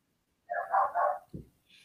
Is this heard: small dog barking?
yes